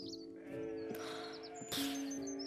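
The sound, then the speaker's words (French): A sheep bleats loudly in a long, wavering call that swells into a second bleat, with faint bird chirps in the background. “Mais maman brebis ne permet pas.”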